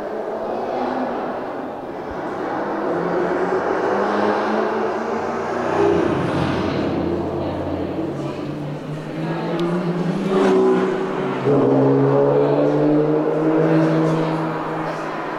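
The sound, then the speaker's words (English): Car engines rev continuously in the Sound of Motion gallery, layered drones rising and falling in pitch with surging whines, loud and dense throughout, no voices over them. “This is their Sound of Motion gallery.”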